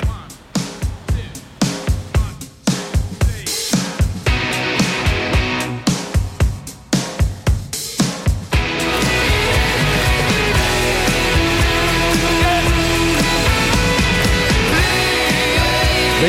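A rock song plays: a choppy, stop-start electric guitar riff for several seconds, then the full band crashes in with drums and dense, loud guitars driving steadily.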